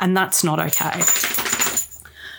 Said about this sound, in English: You can hear the dog shaking in the background uh, this week.